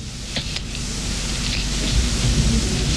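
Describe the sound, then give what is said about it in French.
A steady wash of rain hisses throughout, with a deep, low rumble of thunder swelling underneath; no voices, just the storm filling the space at a constant, fairly loud level. “Ah bah voilà, voilà l'orage.”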